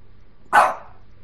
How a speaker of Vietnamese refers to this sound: một tiếng chó sủa ngoài cửa